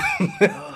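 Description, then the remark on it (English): Two quick, muffled sneezes in close succession from someone with springtime allergies, short sharp bursts of breath rising over a steady, faint tonal hum in the background. “Bless you.”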